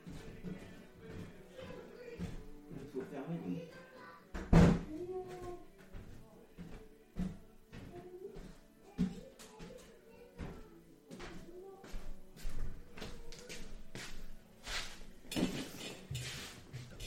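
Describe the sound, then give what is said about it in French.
A door is pushed shut with a single loud thud partway through, surrounded by scattered knocks, shuffling and faint background voices, with another sharp bang near the end. “je crois qu'il a pas fermé la porte.”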